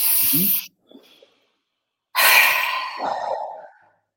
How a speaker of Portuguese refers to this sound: Antes de começarmos a fazer esta respiração, fazemos três, se estivermos muito tensos, fazemos três vezes, inspiramos e ao expirar, expiramos pela boca, fazendo este som que é para deixa-se tudo cá para fora.